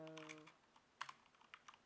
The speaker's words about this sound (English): Yeah, my keyboard's really loud. Yeah. We got them, them silent switches.